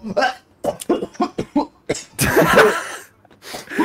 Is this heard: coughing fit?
yes